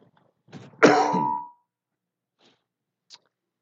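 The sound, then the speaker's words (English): A loud clearing of the throat by a person fighting a cough, rolling into a brief raspy cough, lasting about a second, followed by near silence with a couple of faint small noises. “Fighting a cough, so if I choke on my cough drop, don't mind me.”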